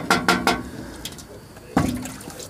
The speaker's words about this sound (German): Und der Brunnen ist noch da. Und der Eimer ist auch noch da. Boah, ist das Und krass. vielleicht hier sogar noch Wasser drin, wer weiß. Boah, ist das krass. An dieser Kurbel haben wir gedreht und haben hier Wasser rausgeholt.